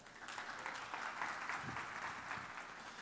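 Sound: audience applauding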